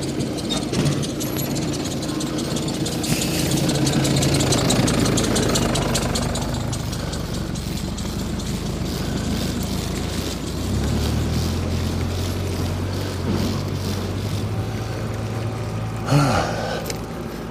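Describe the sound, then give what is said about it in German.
A tractor's heavy engine rumbles steadily, its low drone shifting in pitch partway through, with a brief sharper burst of noise near the end. “hinter mir ist ein freundlicher Treckerfahrer mich gerade durchgewunken hat.”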